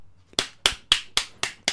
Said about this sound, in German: Ich klatsch mal. Äh, Applaus, dass du jetzt Jäger bist.